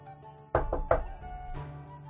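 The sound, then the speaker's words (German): Three quick, solid knocks, like knuckles rapping on a hard surface to mimic a door knocker, followed by a softer single thud. “Ihr seht den Türklopfer. Ich klopfe mal.”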